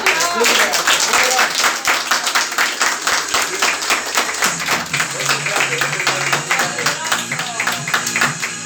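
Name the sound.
audience applause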